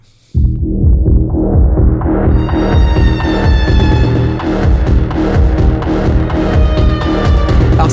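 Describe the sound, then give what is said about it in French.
A dark, pulsing synthesizer pattern from Native Instruments' Schema: Dark, billed as a cinematic pulse engine, starts abruptly and plays loudly throughout, with a rhythmic throb in the low end and bright harmonics sweeping steadily upward as the tone opens. No one speaks. “Ils appellent ça un moteur à impulsion cinématographique.”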